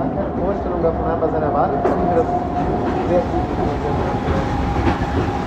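A train rumbles steadily through a tunnel into the mountain at the Gastein healing gallery, with a dense low roar, faint rhythmic clatter of wheels on rails, and occasional metallic squeals.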